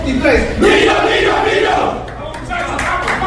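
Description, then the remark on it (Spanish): A football team coached by Jorge Luis Pinto chants and shouts together in its locker room before going out onto the pitch, a loud, dense roar of many voices that stays strong for about three seconds with no clear individual words. “Hasta la arena el vestuario del conjunto de Guerra antes de salir a la cancha.”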